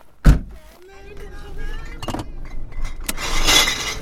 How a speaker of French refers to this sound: Là, les gling-gling que vous entendez, c'est les restes de l'anniversaire d'un pote.